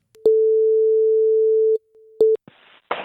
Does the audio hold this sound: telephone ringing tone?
yes